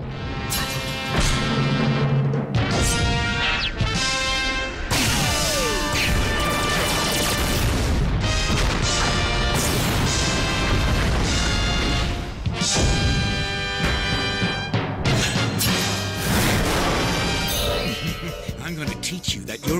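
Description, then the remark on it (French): Loud, dense audio from a Gundam anime trailer packed with booming explosions and crashing impacts, layered over a driving score, with a few brief sharp cutoffs between bursts of action. “On va maintenant écouter une bande-annonce de, de Gundam.”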